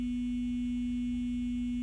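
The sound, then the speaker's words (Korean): A mobile phone ringing as a single steady, low-pitched electronic tone that holds unbroken for about two seconds at a moderate level, with no voices. “그 순간 내 휴대폰이 울려왔다.”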